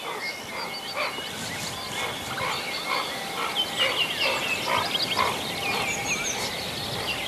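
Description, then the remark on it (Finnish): A common redshank calls in cold, damp weather amid a busy chorus of other birds, its sharp, high whistled notes repeating steadily over a constant wash of background calls, with no one talking. “No niin, hykly, hykly, hykly. Joo, siellä punajalka viikkoa.”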